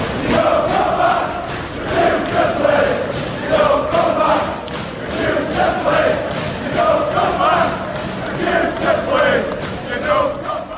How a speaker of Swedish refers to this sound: Och man blir ju inte populär när man försöker bråka sig bort från en klubb och då låter det faktiskt så här från Leeds-fansen.